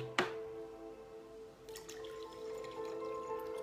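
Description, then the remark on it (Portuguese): Water is poured to refill a small drinking cup, a steady splashing trickle that starts after a brief clink and continues to the end over a low, constant background hum. “Aí eu vou encher de novo meu copinho, porque eu participo também da oração e da frutificação da água.”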